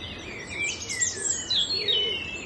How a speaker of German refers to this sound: Und nimm die Geräusche um dich herum, die Geräusche auf deinen Ohren, die Geräusche der Vögel wahr.